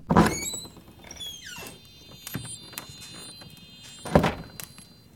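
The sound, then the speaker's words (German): A door squeaks and creaks as it swings, with a sliding pitch rising then falling, followed by a few knocks and thumps. No one speaks. “Na, dann gehe ich mal auf.”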